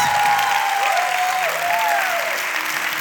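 An audience applauds steadily, a dense, continuous wash of clapping hands that stays loud throughout, with a faint sustained tone gliding underneath.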